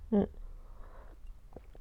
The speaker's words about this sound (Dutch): Even, oh, sorry, excuus. Een slokje koffie. en probeer het voorzichtig te doen. En dan verslik ik me meer.